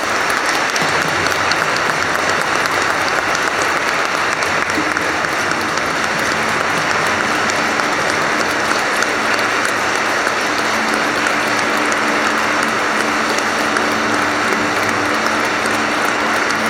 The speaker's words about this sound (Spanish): pues como signo de nuestra gratitud y de nuestra entrega del Padre Toño al Padre Celestial, le damos un fuerte aplauso de despedida.